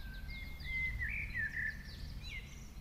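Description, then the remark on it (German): Several birds chirp and twitter in overlapping bursts in the garden of a hotel and apartment complex on the east side of an island, over a steady low outdoor rumble, their bright calls continuous throughout. “Sie ist für ihre Gartenoase bekannt, in der sich auch viele Vögel wohlfühlen.”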